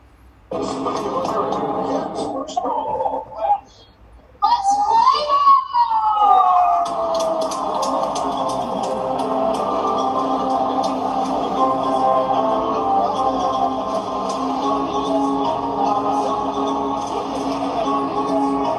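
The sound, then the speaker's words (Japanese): A Major League Baseball stadium crowd at an Astros versus Angels game, recorded from the stands around September, keeps up a loud, steady roar of chatter and cheering, with a brief wailing, siren-like tone that swoops up and down early on before the din settles into a constant hum. “今からちょっとあのちょうど9月頃大谷選手来た時に行ってきて、うん、でその観客席から聞こえた音源をお聞きください。”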